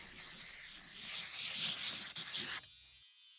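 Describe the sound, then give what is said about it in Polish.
Steady scratching of a door being drawn on a surface, a continuous rasping stroke sound lasting a few seconds before cutting off abruptly into quiet. “rysuję zatem drzwi.”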